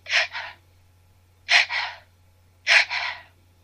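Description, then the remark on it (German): A voice imitates the staccato reflex gasping of animals, a neurological reflex: three sharp, breathy double-pulsed intakes, each quick catch followed by a second puff, spaced about a second apart, fairly loud with a faint low hum underneath. “Und es hört sich auch so ein bisschen wie so eine Staccato-Atmung an. Ich mache das mal kurz vor.”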